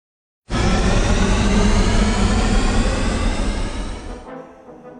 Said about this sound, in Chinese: 随着备用发动机的同时启动，动力与引力短时间内产生了强大的对抗。飞船剧烈地震动了起来。